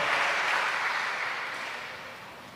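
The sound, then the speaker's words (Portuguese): A church audience applauding in praise of God, a dense wash of many hands clapping that stays fairly loud and gradually fades over a couple of seconds, with no voices standing out. “Quem crê pode aplaudir o Senhor. O aplauso não é para um homem, mas é para Deus, pela obra que Ele fez através do Seu Filho amado.”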